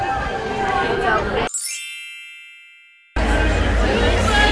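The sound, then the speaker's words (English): A dense crowd exiting Hollywood Studios theme park after a nighttime show murmurs and shuffles loudly, broken by a bright ringing chime that fades in sudden quiet before the thick babble of many voices returns. “I am here at Hollywood Studios trying to exit in the mass crowd after Jingle Bell, Jingle Bam.”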